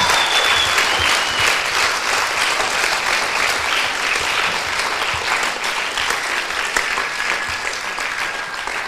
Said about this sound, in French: These folk represent the churches in France. Donc ces personnes représentent l'église en France. I think we should applaud them. Donc on doit les applaudir. Yeah, well done.